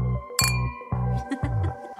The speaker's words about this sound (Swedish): Vänta! En skål med våra tomma glas. Oh my god. Bubblet är slut.